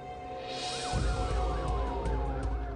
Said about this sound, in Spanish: Se escuchan sirenas de la policía en el barrio de Bremwood. Un grupo de policías se dirigen a una casa en el 875 de South Bundy.